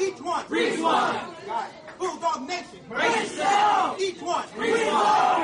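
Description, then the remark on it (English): A group of voices shouts a rhythmic call-and-response chant at a school huddle, one leader calling "each one" and the crowd answering "reach one" in loud bursts that repeat with short pauses between. “That's the chant right there every single time.”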